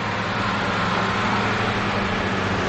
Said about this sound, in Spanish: Más tarde, un coche todoterreno de color negro avanza por la carretera junto a la colina.